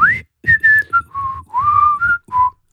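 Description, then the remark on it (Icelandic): A person whistles through puckered lips, a clear run of eight short tonal notes that slide and hold at different pitches with brief gaps, no talking. “Er þetta að flauta, eh, þetta er samt líka að blístra er Hvað er að blístra?”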